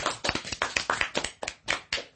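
audience clapping hands

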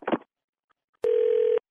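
telephone dial tone

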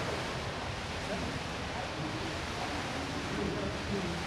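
indoor swimming pool ambience

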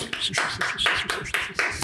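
applause

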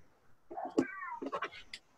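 cat meowing

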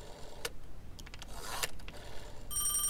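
telephone ringing

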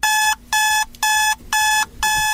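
alarm clock ringing

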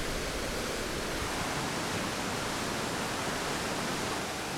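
rushing river rapids

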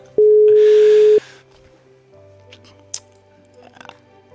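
telephone call ringing tone

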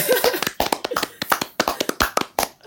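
hand clapping

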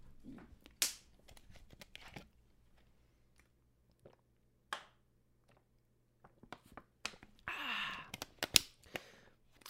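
drinking water

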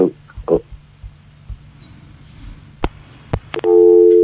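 telephone busy tone

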